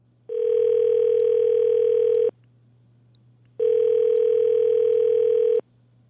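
A telephone line tone sounds twice as a radio show places a call, each a steady, loud electronic hum lasting about two seconds with a short silent gap between, heard clearly on its own with no voices.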